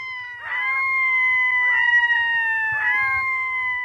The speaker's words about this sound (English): Their voices evoke the landscape of the far north. Listen as a red throated loon calls as it emerges from the lake's reedy edge.